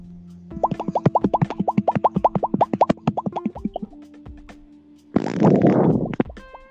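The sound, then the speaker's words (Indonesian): A long, sputtering fart made of rapid, evenly spaced pops runs for about three seconds, followed after a short pause by a louder, breathy burst of noise. Nobody speaks. “nah lu kentut ya tuh”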